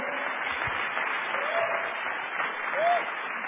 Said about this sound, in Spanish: Un aplauso para ellos que fueron nuestros, nuestros en este evento.